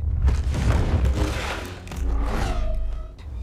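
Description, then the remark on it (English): Lightsaber duel sound effects: a loud, continuous barrage of buzzing clashes and crackles over a deep rumble, ending with a whining, falling hum as the blades swing. “Love those sound effects.”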